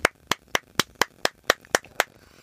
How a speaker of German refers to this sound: mit einem äh, minutenlangen Klatschkonzert verabschiede ich uns jetzt in die nächste Pause.